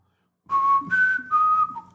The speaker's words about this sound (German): Ist Pfeifen fies? Oder wie hört sich das an für euch?